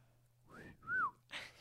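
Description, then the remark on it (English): A person whistles a short two-note phrase, the second note swooping up and then down, followed by a brief breathy burst, all over a faint low hum. “you would probably probably whistle like that to Belladonna Took”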